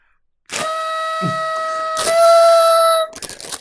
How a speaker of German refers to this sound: das Wichtige ist, man muss mit ordentlich Dampf rein. Meine Tröte, das meine sieht, Rüsseltröte. Deine Rüsseltröte sieht sehr traurig aus.